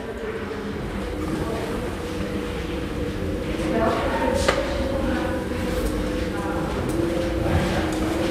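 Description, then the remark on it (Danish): An elevator going up gives off a steady, whining, howling mechanical hum with sustained tonal overtones, running continuously at a moderate level with faint rattling and clicks mixed in. “Har du lagt mærke til den lyd? Nej. Som elevatoren siger?”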